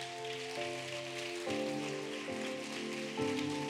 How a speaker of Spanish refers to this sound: Y lo que dale un fuerte aplauso al Señor.